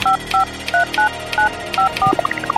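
A rapid sequence of about seven DTMF keypad tones, each a short two-pitch beep, as an access code is keyed in, followed by a quick rising series of electronic blips.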